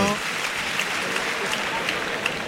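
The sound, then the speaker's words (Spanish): A bullring crowd at a bullfight breaks into a steady ovation after the sword thrust into the bull. The clapping is dense and continuous, with occasional sharper claps standing out, loud and sustained throughout. “Mira, qué lástima la ovación del público.”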